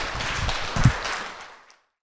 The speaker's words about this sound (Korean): 우리 모두에게 박수 치면서 오늘 세 번째 필터 콘서트 마치겠습니다.